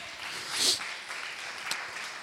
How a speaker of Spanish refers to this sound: Dale un aplauso a Dios.